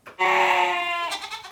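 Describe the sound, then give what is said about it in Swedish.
A quiz team's answer-button buzzer sound effect in the form of a single loud, wavering goat bleat lasting about a second and a half, clear, with no talking over it. “Ska vi lyssna på era knappar igen, hur de låter, så vi minns?”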